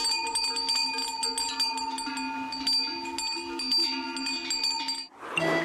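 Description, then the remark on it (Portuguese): Many small metal bells worn by a flock of sheep clank and ring together in a continuous, overlapping jangle, with a brief louder rustling burst near the end. “E a resposta correta é os chocalhos que se usam nos rebanhos de ovelhas.”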